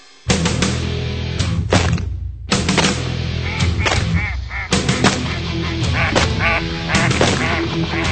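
A flock of ducks quacks loudly and continuously, their harsh calls overlapping, with occasional sharp bursts breaking through the steady racket.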